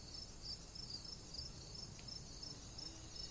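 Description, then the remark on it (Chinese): Insects chirp in a steady, rapid high-pitched pulse, repeating evenly throughout over a soft low background hiss, with no voices present. “赶路人总是匆忙踏上远行的列车，但还有很多像电影一样的人，会伴着阵阵虫鸣，满足的睡去。”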